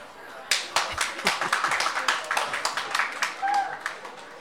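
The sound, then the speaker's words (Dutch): A burst of audience applause: many hands clapping in a dense, steady patter that starts abruptly and carries on without a break, with a faint tone sounding briefly near the end. “Dat is het moment waarop jullie haar een applaus geven.”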